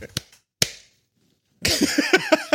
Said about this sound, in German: Soll, ich, soll ich klatschen zur Synchronisation oder so? Klatsch.